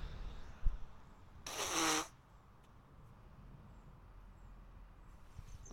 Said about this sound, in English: One second, ladies and gents. Just going to blow my nose again because it's constant.